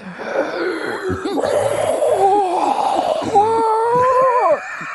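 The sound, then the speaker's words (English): A voice imitates heavy, labored wheezing breaths, raspy and strained with whistling pitch glides, loud, continuing for several seconds with no words spoken. “like as if like a lung is dying with each breath.”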